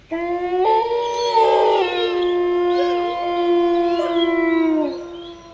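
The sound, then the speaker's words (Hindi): A dog howls in one long, sustained, mournful wail lasting about five seconds, rising slightly before tapering off at the end, on a new-moon night. It sounds loud, with no talking. “तभी कुत्ते की रोने की आवाज़ फिर से आई”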